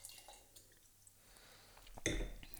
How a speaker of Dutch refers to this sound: Sauvignon Blanc uit Chili. Chili? Chili? Ik schenk je lekker het glas bij